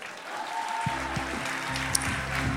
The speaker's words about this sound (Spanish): Un aplauso para la amiga.